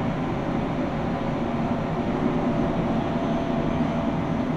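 A commuter train on the Tokaido Main Line runs steadily on the rails from Shinjohara toward Toyohashi, a continuous low rumble with rhythmic rattling and a faint hum overhead, holding an even loudness throughout with no voices.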